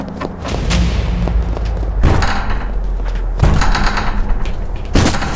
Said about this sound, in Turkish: Ardı ardına üç kez kapıya çarpan koçbaşının sesi gecenin karanlığında yankılanırken binanın arkasındaki gölgelere sığınmıştık bile.